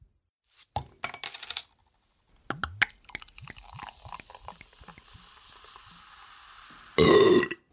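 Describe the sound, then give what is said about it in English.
A few glassy clinks and a soft fizzing pour of Topo sparkling mineral water give way to a loud, drawn-out burp right at the end. No one speaks. “Topo for burping.”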